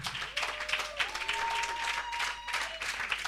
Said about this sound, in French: Quelqu'un peut acclamer le Seigneur. Amen. Ça, c'est pas acclamation. C'est applaudissements.